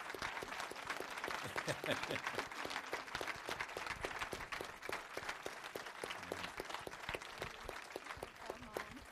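An audience breaks into sustained applause for a group of young women, dense overlapping claps crackling steadily for about nine seconds at an even, fairly loud level, with faint voices mixed in underneath.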